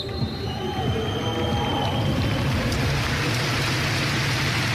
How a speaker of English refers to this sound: Nantes were playing in the French Premier League, and they were playing against Saint Etienne, and the match was stopped for a round of applause.